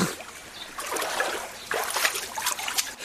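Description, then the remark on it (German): Water sloshes and splashes in uneven bursts as people step out of cold water in a Kneipp wading pool, like feet moving through a shallow pool, with dripping and trickling between the louder splashes. “Genau, kaltes Wasser. Dann gehen wir wieder raus.”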